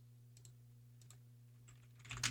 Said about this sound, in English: You have to ignore the typing like, and, and, clicking uh, in the background.